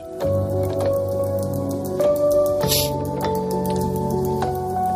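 Water drips from leaking pipes in a steady series of sharp plinks, roughly twice a second, heard over a sustained, tonal musical background.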